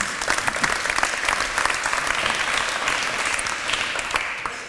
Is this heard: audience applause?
yes